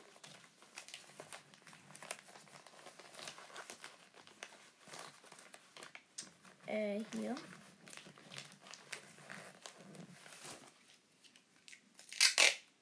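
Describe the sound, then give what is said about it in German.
Old wrapping paper crinkles and crumples almost continuously in busy, crackly bursts as a Christmas present is wrapped, with a person briefly speaking over it and a sharper, louder rustle right at the end. “Aber ihr habt extra neues Geschenkpapier geholt. Und jetzt benutze ich einfach das alte.”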